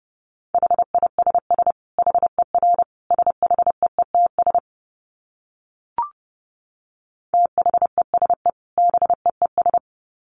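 Fast Morse code at about 30 words per minute: rapid dits and dahs on one steady mid-pitched tone, broken by a few seconds of silence with a single click before the keying resumes.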